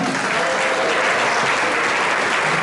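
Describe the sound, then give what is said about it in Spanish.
Steady, dense applause from a church audience applauding the church fills the whole clip, a continuous wash of many hands clapping at an even, loud level with no voices standing out. “Denle un aplauso a la iglesia.”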